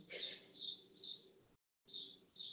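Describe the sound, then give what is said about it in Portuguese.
A small bird chirps in a series of short, bright, evenly spaced calls, with a brief pause partway through, over a faint low background hum. “O passarinho tirou minha concentração.”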